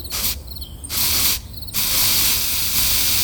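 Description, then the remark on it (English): Soft, airy hissing of a fine, cool mist of pheromones sprayed onto people from two nozzles on a car dashboard, in three bursts, the last one long and steady, with faint high chirping audible in the brief pauses between sprays. “It is also necessary to spray you with the correct and pheromones.”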